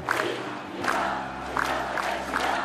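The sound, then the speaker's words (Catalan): A large crowd gathered in Plaça de Catalunya, Barcelona, on 11 September 2013 after the completion of the Catalan Way cheers and chants. It is a dense, loud roar of many voices rising in rhythmic swells about every second, with no single speaker standing out. “Una emocionada presidenta de l'Assemblea Nacional Catalana s'adreça als concentrats a la plaça de Catalunya un cop completada la via catalana.”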